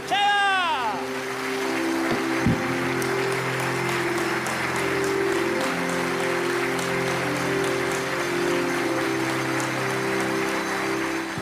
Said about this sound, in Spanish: Si crees que Dios te lo da, un aplauso gigantesco, dale un aplauso grande al Señor. Ese es nuestro Dios. ¿Cómo te ama el Señor? ¿Cómo no te va a amar? Dale un aplauso maravilloso al Rey.